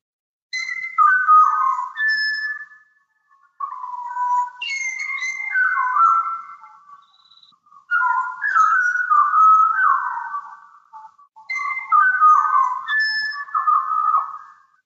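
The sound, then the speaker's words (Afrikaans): A Pied Butcherbird, an Australian bird, sings four rich, flute-like melodic phrases separated by brief pauses, clear, with no voices present. “En dit is 'n Australiese voël met die naam van die Pied Butcherbird. Luister bietjie hier.”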